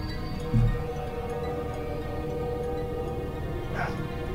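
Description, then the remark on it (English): A person mimics a dog barking into a microphone: one gruff, low bark near the start, then a shorter, higher yelp a few seconds later, both over a steady background hum. “He barks into a microphone.”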